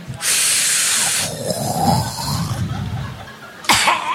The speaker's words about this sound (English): And then the coughing. Five minutes coughing.